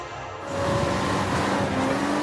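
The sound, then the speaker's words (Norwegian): A racing car engine from Microsoft's video game Forza Horizon 2 roars steadily at high revs after a brief quieter start, with a sustained tonal whine and dense mechanical rumble, loud with no talking. “Her hører vi altså litt lyd fra Microsoft sitt eh, store, sin store, store satsing på bilfronten Forza Horizon 2”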